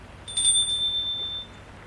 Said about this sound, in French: Sonne à la porte du séminaire.